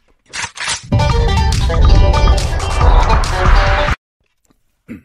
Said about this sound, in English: I'm going to drink some water. Some water. This will take five seconds. Hopefully, it's not too loud.